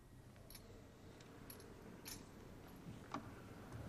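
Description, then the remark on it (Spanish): A swinging censer clinks in light, metallic taps as the Gospel book is incensed: four or five quick chain rattles spaced about a second apart, fairly soft against a low hum of background noise with no talking. “Primero se inciensa este libro como signo de fe en que es Jesús mismo quien nos habla. Podéis escuchar ese incensario.”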